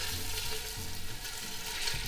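Sausage sizzles and crackles steadily as it browns in a hot pot with a little oil, a continuous frying hiss with faint stirring scrapes and no voices.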